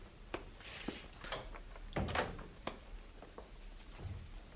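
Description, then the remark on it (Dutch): A door being closed, with a few sharp clicks and knocks of handling before a fuller thud from the latch shutting, then a couple of lighter taps; no one speaks. “En doe de deur dicht.”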